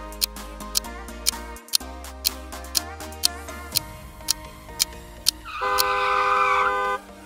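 car approaching

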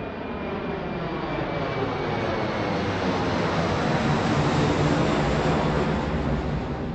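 airplane engine

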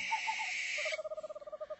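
owl hooting

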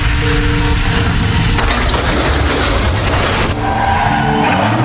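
car braking hard

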